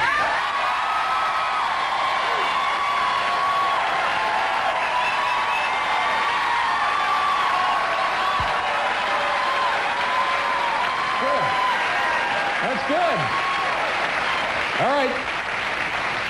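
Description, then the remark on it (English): Sustained audience applause with scattered whoops and cheers at the Ed Sullivan Theater, a dense steady wash of clapping that stays loud for the whole stretch, with occasional rising yells breaking through near the end. “the leaves are off the trees, and I just, you know, I just needed a little applause.”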